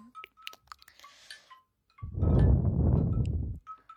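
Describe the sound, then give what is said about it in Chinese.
A wind chime rings with several bright, metallic tones, then a loud, rough rush of clattering noise surges for over a second before a few chime notes return. No one speaks. “我要试一下风铃。我发现这个风铃的声音好大，”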